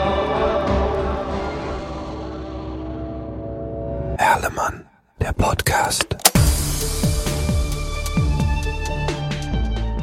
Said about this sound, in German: Er sitzt im Taxi, er hört, wie die Scheibenwischer über die Frontscheibe quietschen, als Nieselregen einsetzt,